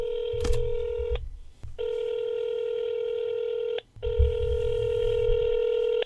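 Telephone line sounds: a brief click, then three long, steady electronic ringing tones, each about two seconds with short pauses between, clear and close with a low rumble beneath. No one speaks.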